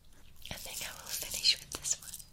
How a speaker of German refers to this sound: Mein Körper ist angespannt. Zu nahe kommen mir das Schmatzen, der Atem, das Öffnen und Schließen des Mundes.